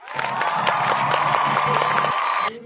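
An audience breaks into steady applause and cheering for a team after its performance at a judged competition, loud and sustained with a dense wash of clapping and shouts throughout, cutting off abruptly near the end.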